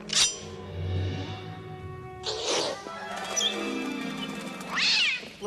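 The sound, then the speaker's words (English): A cat yowls and caterwauls, three loud, rising meows breaking through a continuous, wavering wail, with no talking. “Nice kitty. Nice kitty. Nice kitty.”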